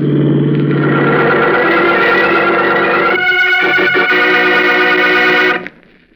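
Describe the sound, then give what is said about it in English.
A speeding car's engine revs loudly for about five seconds, its pitch climbing and roaring as it speeds up, then cuts off abruptly into quiet. “Look out for that car, Howard!”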